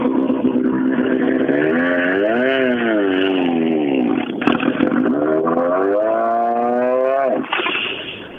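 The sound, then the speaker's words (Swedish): A loud race car engine roars, its pitch rising and falling through gear changes and revs before dropping away sharply near the end as it passes. It is the first car coming in during a race. “Nu blir det spännande då, för nu, nu kommer första bil in i det otrimmade...”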